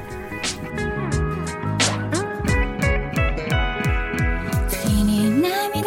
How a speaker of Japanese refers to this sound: まず A パート聴いていただきました続いて B パートを聴いていただく前に曲を1曲聴いていただきましょう